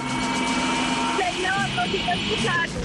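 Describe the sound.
A helicopter drones steadily through the whole stretch, a loud, dense mechanical roar with a sustained hum, while voices talk over it in the second half.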